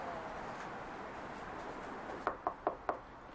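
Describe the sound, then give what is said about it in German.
Four quick, evenly spaced, crisp knocks on the front door of a house, following a couple of seconds of quiet background hiss with no one speaking; no one comes to the door. “Die Schwangeren reagieren nicht auf uns. Niemand kommt an die Tür.”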